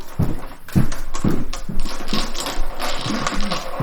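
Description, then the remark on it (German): Playing cards are shuffled, with bursts of crisp, rapid flicking and riffling that come in a few quick waves over a few seconds, with no voices. “Ähm, ähm, mischen und dann ziehen und ähm, genau, das gucken, was bei rauskommt.”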